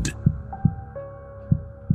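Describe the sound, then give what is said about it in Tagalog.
Deep, booming thumps of a person's own heartbeat, two pairs of low pulses spaced apart, loud over a faint sustained hum, with no voices. “Dinig na dinig ko ang malalakas na pagtibok ng aking puso.”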